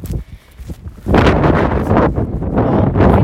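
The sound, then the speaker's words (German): Loud, buffeting wind blasts against a microphone, low rumbling gusts that surge in after a quieter start and keep roaring unevenly, muffling everything else. “Sorry wegen dem Wind.”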